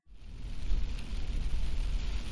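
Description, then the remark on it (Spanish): Heavy rain pours at night in a steady, dense hiss, layered over a deep, continuous rumble like thunder. No one speaks; the downpour fills the whole short stretch at an even, fairly loud level. “Era de noche y llovía mucho.”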